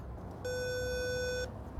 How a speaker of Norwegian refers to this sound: Jeg ringer på.